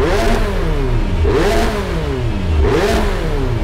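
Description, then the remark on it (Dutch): A race car engine revs hard three times in a steady rhythm, each rev climbing and falling back, loud with no voices. “Met kleppen, de vorm van de uitlaat en zelfs een mogelijkheid om onverbrande brandstof in de uitlaat te laten ploffen, kan je het geluid van een wagen naar je hand zetten.”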